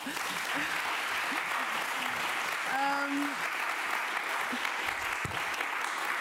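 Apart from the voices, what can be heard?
audience applause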